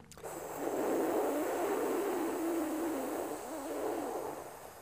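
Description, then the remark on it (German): A long, steady hissing inhalation drawn through the mouth in a cooling breathing exercise, a breathy airy rush lasting several seconds with slight swells in loudness and no talking over it. “Atme zischend, kühlend, harmonisierend ein.”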